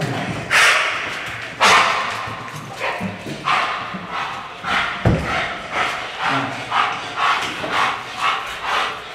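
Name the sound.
police dog barking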